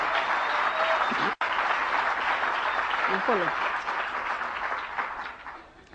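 An audience applauds steadily, a dense wash of many hands clapping that holds strong for several seconds, breaks for an instant, then slowly fades out toward the end.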